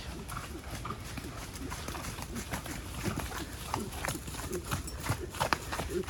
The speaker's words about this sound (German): Jetzt kommen die Pferde aus dem Wald, wo sie getrabt sind und es geht zur Rennbahn.